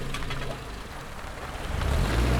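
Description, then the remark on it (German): A car engine rumbles as a woman drives to the old railway station building in Sorge, its low drone growing louder toward the end. No voices are heard. “Wenige Minuten später hat sie das alte Bahnhofsgebäude erreicht und steigt aus dem Auto.”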